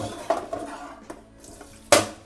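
Kitchen utensils clatter and clink as someone rummages through them looking for a can opener to open a can of corn. Several sharp metallic knocks sound, the loudest near the end, over a low background hum. No one speaks.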